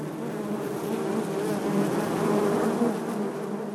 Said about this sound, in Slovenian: Čebele so dejansko v zaprtem prostoru, vendar imajo vsaka svoj izhod. V bistvu je notor šest čebeljih družin, celo sedem čebeljih družin, ki vsaka po svoji sevki izletava